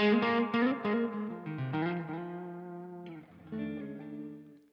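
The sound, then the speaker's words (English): An electric guitar plays a few ringing chords through an amp with a short room reverb run through the aux, loud, each strum sustaining into a short, roomy reverb tail before fading out. No voices. “So I've got some just going like it's off on my amp. I just have it going through the aux.”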